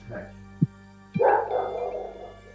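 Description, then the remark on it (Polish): A mixed-breed dog, disturbed by something and being let out, barks a drawn-out, slightly whiny bark following two soft thumps, with a faint hum in the background. “musiałem, musiałem swojego kundelka właśnie wypuścić, bo coś go zaniepokoiło.”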